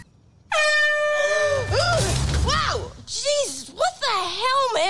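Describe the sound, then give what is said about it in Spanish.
A loud air horn blast cuts in abruptly and holds a brassy tone, then bends into wavering, warbling honks over a brief low rumble, lasting several seconds. “Was the air horn really necessary?”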